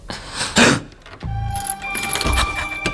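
A front door opening: keys jingle and rattle, followed by a low scraping creak and a metallic clatter, with a faint ringing tone hanging under the movement.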